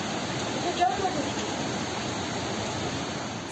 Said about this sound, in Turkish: Sel evleri böyle yuttu. Kuruyan derelerin bile taştığı mahallelerde taş üstünde taş kalmadı. Önce dolunun ardından sağanak yağmurun vurduğu Eskişehir'de sel bir ilçeyi yıktı geçti.